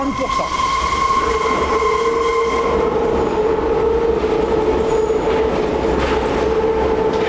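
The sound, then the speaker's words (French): A metro train rolls steadily on steel rails, with a continuous loud rumble and sustained high-pitched metallic whines from the wheels, without a break. “Bah, ça, tu vois, c'est un bruit de, c'est bruit de métro sur fer.”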